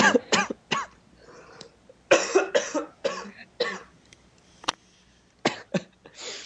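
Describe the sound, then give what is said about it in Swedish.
A series of harsh coughs in irregular bursts, with a couple of rapid pairs and a few quieter throat-clearing hacks between them, no talking. “Jag måste hosta.”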